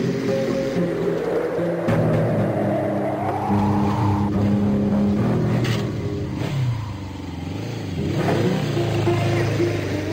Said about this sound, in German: Erst hätte ich ja gedacht Western, aber dann war danach ein Motorrad zu hören. Mhm. Es ist aber nicht Vollgas